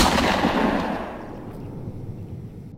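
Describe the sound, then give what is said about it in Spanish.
A single loud gunshot booms out, its heavy report rolling into a long echoing decay that fades over a couple of seconds, with no voices present. “y la mano que se aferra y acelera, acelera, acelera y salgo del bolsillo y el frío me golpea y la mano tiembla y disparo.”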